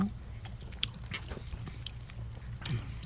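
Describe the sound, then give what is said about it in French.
Biting and chewing a small piece of dark chocolate: crunching with several sharp bites and clicks scattered over a low, steady rumble, fairly quiet overall and with no talking. “Faut que tu prennes un petit morceau de chocolat noir.”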